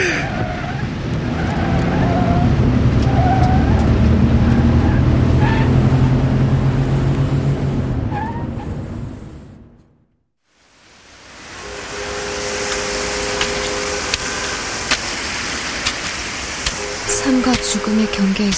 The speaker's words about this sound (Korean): 위에서 쉼없이 흐르는 검은색 타이어들.